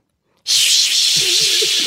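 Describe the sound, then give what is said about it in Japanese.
A voice imitates a pressure cooker partway through releasing its pressure: a sudden, loud, steady hiss that holds for well over a second, with a faint low wavering tone creeping in near the end. “圧力抜いてる途中の圧力鍋。”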